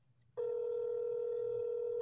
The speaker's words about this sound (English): Your phone rings?